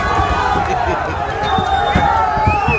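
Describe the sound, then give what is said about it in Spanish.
Dull, irregular thumps of people kicking a car ring out several times amid a loud, dense crowd roar with voices shouting throughout. “Escucha, patas al coche y todo, ¿eh?”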